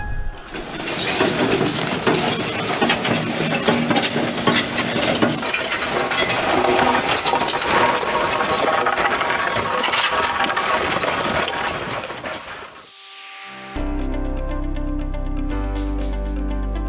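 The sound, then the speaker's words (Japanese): A Banei racing draft horse hauling a heavy sled in morning training (zuri-biki exercise): loud, continuous scraping and grinding with rough clinks and uneven thuds for about twelve seconds, then it fades before a different steady, tonal sound begins. “今放送したのはずり引き運動の音朝調教では1頭につき1時間ほどそりを引いて歩くずり引き運動というものがあるんです長い時間そりを引くことでバンバたちの心配能力を高める大事な運動となっております”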